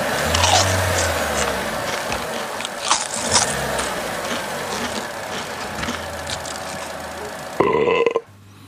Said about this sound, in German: Das Bäuerchen kannst du ignorieren. Das hat keine Bewandtnis? Das hat keine Bewandtnis.